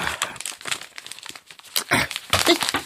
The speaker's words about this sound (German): Es klemmt sicher zwischen den Unmengen Verbandsmaterial. Ah. Krame doch um Himmels Willen nicht so wild in der Hausapotheke. Was, wenn das gelbe Pillenröhrchen herausfällt und zerbricht?